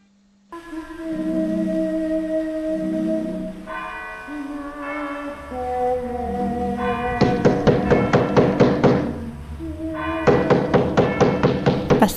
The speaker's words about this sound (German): klopft mit den Mitternachtsschlägen vom Kirchturm um die Wette?